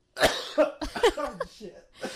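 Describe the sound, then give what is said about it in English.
A man coughs repeatedly, a burst of harsh, raspy coughs coming in quick succession with brief pauses between them. “this is so hard to film with him just coughing all the time.”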